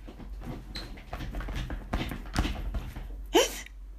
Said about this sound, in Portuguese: Entretanto, o Pedro ouviu a escadaria ranger.